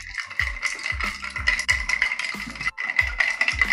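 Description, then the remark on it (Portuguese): Ice rattles and clatters in a steady, rhythmic shake, with a dull thump on each beat, loud, repeating about every half second with no voices. “É o barulho do gelo.”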